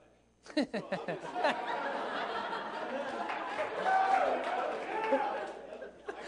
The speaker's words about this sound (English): Why are all the guys cheering?